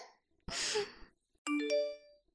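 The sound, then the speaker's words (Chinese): A breathy sigh, then a bright electronic text-message alert: a short chime of two or three quick stepped tones with ringing harmonics, fairly loud, with no talking. “谁给我发的短信？”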